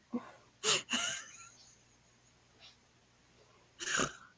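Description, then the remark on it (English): Several loud sneezes: two sharp bursts in quick succession, a quiet pause with faint breathing, then a third forceful sneeze near the end. No talking. “That was me sneezing.”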